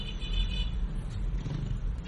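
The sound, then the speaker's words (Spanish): A police car on the road, passed during a drive to the town of Sokolka, gives off a steady, low engine and tire rumble that holds at a fairly constant level for a couple of seconds, with no voices. “Durante el trayecto ya me cruzo con algunos coches de la policía.”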